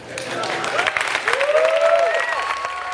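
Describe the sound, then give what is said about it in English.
A large audience in California applauds and cheers as Steve Jobs reveals the iPad, a dense, steady wash of clapping with a few rising whoops and shouts cutting through, loud and sustained for the whole moment. “It's often been noted that science fiction created the iPad long before Steve Jobs revealed it to an eager crowd in California.”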